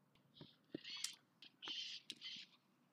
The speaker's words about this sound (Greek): Ακούτε τι συμβαίνει πίσω μου, έτσι. Κάτι πεθαίνει. Κάποια μάχη μεταξύ πτηνών και πουλερικών. Chicken Wars. Ε, περιστέρι Wars. Pigeon Wars.